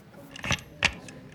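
Two sharp mechanical clicks, distinct, as Fischer presses and starts the chess clock at the beginning of a game after shaking his opponent's hand, with a faint hush of room noise around them.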